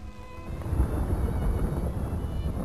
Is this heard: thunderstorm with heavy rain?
yes